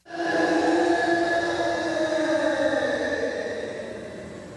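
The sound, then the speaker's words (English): A tennis player lets out one long, loud scream while reaching for the ball. The steady, strained cry is held for over four seconds and fades slightly at the end, with no talking. “Ooh, I want that to be a tennis player. That is yes. correct.”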